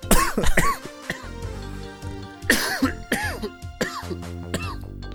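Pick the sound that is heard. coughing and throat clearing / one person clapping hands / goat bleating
coughing and throat clearing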